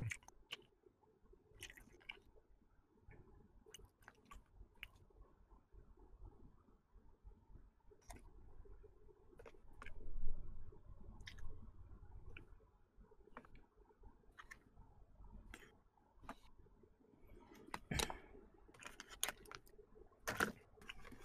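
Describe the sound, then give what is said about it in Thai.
Soft chewing sounds with irregular wet clicks and squishes repeating over about twenty seconds, quiet overall with no talking, as a person eats while trying to chew as quietly as possible. “ผม พยายาม กินให้เงียบ ที่สุด ด้วยเนี่ยนี่ปกติ ผม ไม่เคี้ยวเงียบขนาดนี้นะ”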